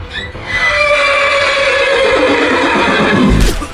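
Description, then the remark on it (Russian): A horse neighs loudly, one long shrill whinny with a wavering, quavering pitch that lasts several seconds before breaking off, with a faint thud at the end. It is King Henri's horse, exhausted by a frantic gallop near the border of Poland, falling dead. “Лошадь короля, измотанная бешеной скачкой, падает замертво.”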